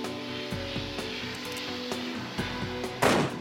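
Several dull, muffled gunshots, fired through a pillow into a heavy-duty plastic bag at different distances, thud at irregular intervals over a steady droning background, with the last shot louder and sharper than the rest.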